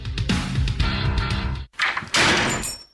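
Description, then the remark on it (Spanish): A door slams shut loudly with a booming, rumbling impact, followed after a brief pause by a second burst of rattling noise. No voices are heard. “Continuamos. El Portazo, la columna de Rafael Cardona.”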